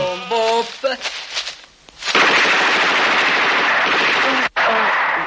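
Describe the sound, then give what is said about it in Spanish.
Sustained bursts of loud gunfire rattle almost continuously as a group of men appearing from behind bushes in a wooded area fire indiscriminately, hitting a young man; a brief voiced cry at the start and a short gap near the end before the shooting resumes. “Un grupo de hombres aparece tras los arbustos y dispara de forma indiscriminada alcanzando al muchacho.”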